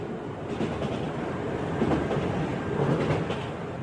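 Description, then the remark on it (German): A real train rumbles past on a normal railway line running beside a test site, a steady, loud rolling roar with faint rhythmic clatter of wheels, swelling slightly toward the middle with no voices present. “neben diesem Testgelände verlaufen auch äh, normale Bahnstrecken, sodass das auch durchaus zum Beispiel Einfluss von der Vorbeifahrt von einem realen Zug oder so auch mit berücksichtigt werden konnte.”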